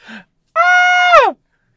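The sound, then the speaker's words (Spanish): A quick breath in, then a sharp, sustained voiced gasp of fright that holds a steady high pitch for under a second before sliding downward and cutting off. One person performing it, with no talk. “O sea, cada vez que algo te dé miedito, tú tienes que hacer”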